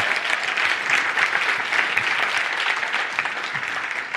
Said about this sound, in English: In fact, can we just give all the team an incredible round of applause, you guys? It's so good.